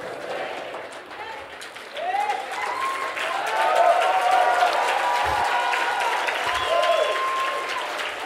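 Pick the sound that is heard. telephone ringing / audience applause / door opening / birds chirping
audience applause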